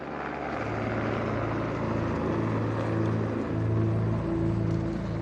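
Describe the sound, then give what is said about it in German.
A helicopter drones steadily and loudly, its low engine hum and rotor throb holding constant with slight swells throughout, with no voices present. It is flying equipment and a research team from a car park to the summit of the Weißseespitze, at 3500 metres, to recover ice cores. “Für die Bergung der Eisbohrkerne auf 3500 Meter Höhe brauchen sie eine ganze Hubschrauberladung mit Ausrüstung. Mehrfach fliegt der Heli, um Ladung und Forscherteam vom Parkplatz auf den Gipfel der Weißseespitze zu bringen.”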